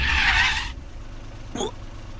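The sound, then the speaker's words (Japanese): A car's brakes screech sharply as the driver brakes and the tires skid for under a second, a loud, high squeal that cuts off abruptly, leaving a low engine rumble and a brief faint scrape afterward. “俺はブレーキをかけた”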